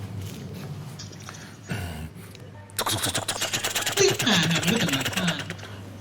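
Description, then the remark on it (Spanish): A voice imitates a helicopter on request with a fast, steady stream of sputtering pulses, fairly loud, mimicking whirling rotor blades for a few seconds after a brief quieter stretch. “La gente le pide sonidos y los reproduce. Ajá. Un helicóptero”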